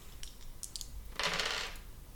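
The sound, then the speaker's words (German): A few light clicks, then a brief rattling clatter as dice tumble across a hard tabletop and settle, landing on a result of 97. No one speaks. “Das ist doch jetzt nicht dein Ernst, Würfel.”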